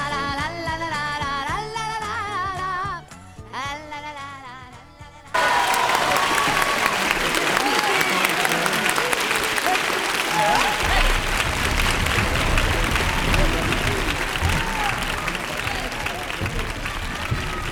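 A short stretch of music with a melody cuts off, then loud, dense audience applause erupts and continues steadily for about twelve seconds, a thick wash of many hands clapping.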